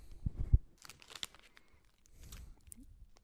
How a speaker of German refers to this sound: Für die Zuhörer, er macht die Tüte auf. Er, er, ist, er nimmt eine goldene Tüte daraus.